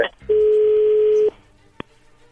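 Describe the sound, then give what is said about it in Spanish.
A telephone call being dialed: a single steady, mid-pitched phone tone holds for about a second, then stops, followed by a short sharp click on a quiet line. “Bien, ahí se está marcando, no haga ruido, por favor.”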